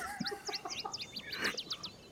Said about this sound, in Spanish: ¿Por qué tiene tanto jilguero el señor? Yo no lo entiendo, señor periodista. Me siguen eh, para todos lados, ya no sé qué hacer con ellos.